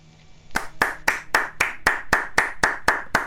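Steady hand clapping begins after a brief quiet moment: about a dozen sharp, crisp claps at an even, fairly quick pace, loud and clear, with no voices over them.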